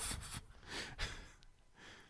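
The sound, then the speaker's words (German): Loud, heavy breathing right up against the microphone, a few rough breaths in and out with airy bursts, no talking. “Wer atmet denn da so ich, ich doll?”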